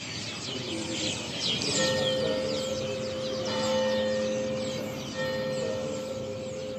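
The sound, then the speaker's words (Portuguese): Church bells ring with a long, resonant hum while a flock of small birds chirps and twitters busily and continuously in the main town square of Madalena on Pico Island, Azores, outdoors, with no voices. “Os sinos e a passarada que se ouvem no principal largo de Madalena.”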